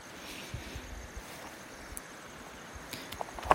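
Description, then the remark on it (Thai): Steady rushing of the Nan River flowing nearby through the Kaeng Chet Khwae rapids in Thailand at night, recorded on a phone microphone: a continuous broad hiss with low, uneven rumbles and occasional brief splashy bursts, with no voices present. “ลองมาเดินมาใกล้ๆแม่น้ำน่านดูซิว่าเจ้าไมโครโฟน ในโทรศัพท์ผมนี่จะอัดเสียงแม่น้ำหน้าลงไปได้บ้างไหมนะครับ”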